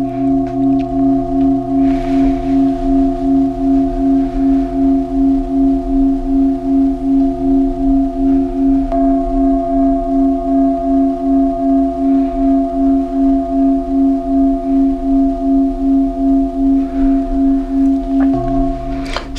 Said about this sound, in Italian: la campana tibetana ha quattro armoniche